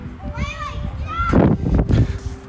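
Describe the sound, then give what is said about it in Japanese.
Children shout and squeal playfully in the background, high-pitched voices rising and falling over a few seconds at moderate loudness, with lively chatter and bursts of noise. “元気やな子供”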